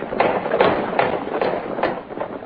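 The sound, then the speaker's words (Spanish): Horses galloping toward a house, ridden by the men of Don Benito Cuevas's foreman: a steady run of rhythmic hoofbeats thudding in repeated bursts over a rough, noisy background. Fairly loud throughout, with no voices. “Es una gente de a caballo que viene.”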